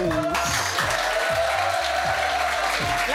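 A studio audience of the show Click on Canal claps steadily throughout, the applause blending with a loud music cue that has a sustained tone and a pulsing, repeating bass line.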